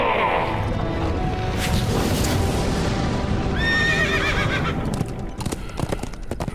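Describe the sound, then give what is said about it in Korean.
A white horse whinnies loudly, one shrill, wavering neigh in the middle, over a steady clatter of hooves and dense rumbling background noise. “이에 내가 보니 흰 말이 있는데 그 탄자가 활을 가졌고 연류관을 받고 나아가서 이기고 또 이기려고 하더라”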